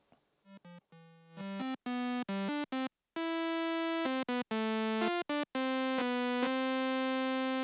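A synthesized tone of a basic single waveform with triangle waves gradually combined in, making a more complex sound, steady and bright with rich harmonics, switching through a series of short on-off bursts and pitch changes before settling into a sustained note.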